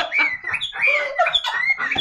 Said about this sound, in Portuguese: Que isso aí, mas é um passarinho.